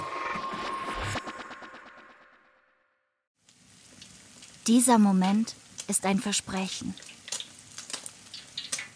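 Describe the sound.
Soft crackling sizzle of butter melting in a pan, steady for a few seconds before fading to silence, followed by a man speaking over a faint sizzling background.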